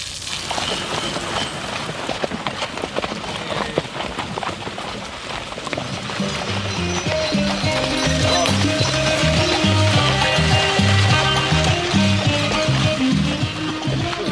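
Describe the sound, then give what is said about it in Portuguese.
Horse hooves clip-clop steadily during a horseback pilgrimage from Moita to Viana do Alentejo, a busy rhythmic clatter running throughout, joined partway through by a louder, fuller layer of outdoor sound. “a participar na romaria a cavalo da Moita à Viana do Alentejo.”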